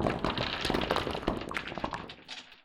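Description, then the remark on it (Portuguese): A heavy, rumbling crash of a tower's stone roof caving in, with cracking debris tumbling and clattering for a couple of seconds before fading out. It is loud and continuous, with no voices. “E com um estrondo, o teto de pedra da torre caiu sobre nós.”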